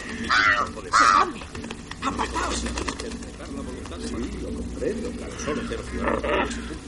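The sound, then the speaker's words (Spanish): Two loud, harsh crow caws ring out as crows peck at Harry's shoe, followed by quieter rustling and murmuring voices with occasional fainter calls in the background. “Los cuervos le picotean el zapato.”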